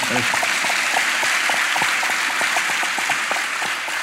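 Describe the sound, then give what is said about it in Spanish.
A group of people applauds for a woman, with dense, steady clapping that stays fairly loud and even for about four seconds, with many quick overlapping claps and no clear rhythm. “Una, un aplauso para, ella”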